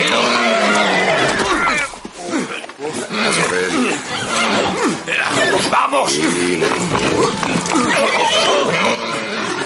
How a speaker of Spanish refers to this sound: Ese caballo está medio loco.